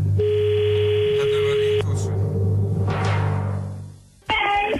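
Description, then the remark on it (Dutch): Telephone tones sound as a Qmusic radio host dials the phone number of the person who will get a gold bar: a steady electronic beep holds for over a second, then a brighter tone cuts in near the end, all over a low humming background. “Goed, ik heb hier dus een telefoonnummer.”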